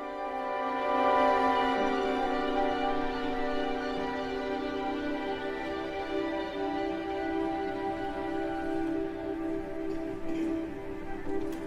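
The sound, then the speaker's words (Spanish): A live performance of contemporary orchestral music by a Mexican composer sustains a dense, shimmering chord of held tones at a steady, moderate loudness, with slow swells and no voices throughout. “escuchando es Clepsidra y es una interpretación en vivo”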